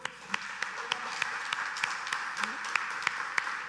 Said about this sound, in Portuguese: Vamos aplaudir o Senhor então?